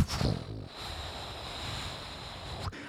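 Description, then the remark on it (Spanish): A steady jungle ambience: a dense, constant wash of outdoor noise with a thin, high droning hum running through it, holding an even level throughout with no voices. “De repente entras a gimnasio en enero y se escucha acá como una música selvática.”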